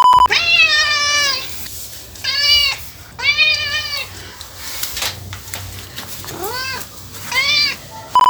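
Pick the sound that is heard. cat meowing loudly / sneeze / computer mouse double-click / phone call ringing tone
cat meowing loudly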